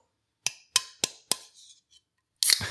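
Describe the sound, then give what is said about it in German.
Four sharp metallic clicks in a steady rhythm, a moment of quiet rustling, then a can of 5,0 beer is cracked open with a loud pop and a rush of fizzing hiss, with no talking. “5.0 Dosenbier. Für Festival.”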